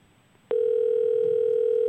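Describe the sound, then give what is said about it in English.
A steady, loud telephone dial tone as a call is placed during a live radio broadcast; it starts abruptly after a brief quiet moment and holds unbroken, a continuous electronic hum with no talking over it. “Let's see if we get Billy on the phone.”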